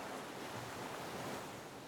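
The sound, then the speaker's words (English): A steady wash of ocean surf rolls onto the shore at a beach, a broad continuous hiss and rumble of breaking waves with no voices, even in loudness throughout. “Exhale you can hear the sound of the waves.”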